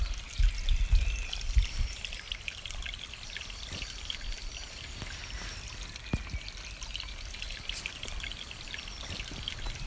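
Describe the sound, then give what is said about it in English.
A babbling brook near Bath flows steadily, its continuous watery trickle and splash filling the scene, with faint bird calls chirping now and then in the background. No one speaks. “Just the sound of the brook bit of bird call in the background and, and nothing else.”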